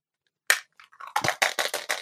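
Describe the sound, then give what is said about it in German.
A single sharp clack, then a quick run of hard plastic rattles and taps as a 20-sided die is rolled by hand across a tabletop, fairly loud with no voices. “Ja, äh, der Würfel hier in meiner Hand entscheidet ja immer, wer mit seinem Thema anfangen darf.”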